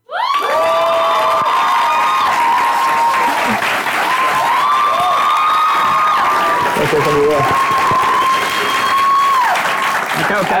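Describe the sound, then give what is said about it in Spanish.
Loud, steady audience applause fills the whole stretch, with long sustained cheers and whoops repeatedly rising over the clapping; a brief voice is heard amid the noise. The audience is applauding a theater producer. “Un fuerte aplauso para el mejor productor que tiene nuestro país de teatro,”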